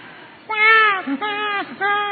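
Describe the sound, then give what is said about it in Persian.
Several people in an audience imitate a newborn baby's wailing cries together, three drawn-out rising and falling wails in a row, fairly loud, with no other talking. “بچه به دنیا میاد چیکار میکنه بگید صدای بچه در بیارید”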